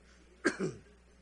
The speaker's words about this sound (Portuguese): Eu estava tossindo igual o irmão que está tossindo aqui.